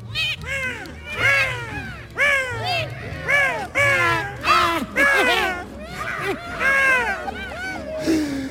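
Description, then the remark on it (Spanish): A flock of griffon vultures taking flight calls constantly, with loud, wavering, arching squawks and cries that overlap in quick bursts over a steady low rumble. “Y aquí, queridos amigos, ponemos fin a un episodio más de nuestra fauna ibérica nacional, con el sonido de fondo de los buitres leonados alzando el vuelo en pleno salón comedor.”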